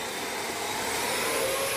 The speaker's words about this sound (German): Ist das nicht unfassbar leise? Also ist auf jeden Fall mindestens um die Hälfte leiser als unser alter Staubsauger und das finde ich total irre. Ich mache jetzt mal die höchste Stufe an.